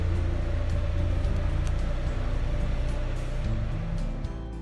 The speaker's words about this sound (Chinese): 妈妈也跟着补充说道：“还有引擎持续发出的嗡嗡声，也会让我们想睡觉哦。”